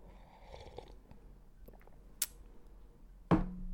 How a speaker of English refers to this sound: I'm here on a Monday sipping on this coffee. You're going to hear me sip now.